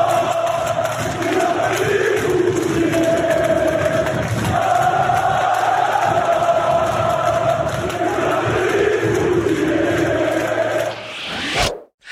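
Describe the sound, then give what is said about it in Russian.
Fans of the Turkish club Fenerbahçe chant "Vladimir Putin" in unison during a match against Dynamo Kyiv, a loud, steady roar of voices rising and falling in a repeated rhythmic cadence, continuous for about eleven seconds before cutting off abruptly. “И фанаты турецкого клуба Фенербахче начали скандировать кричалку «Владимир Путин» во время матча вот с киевским «Динамо».”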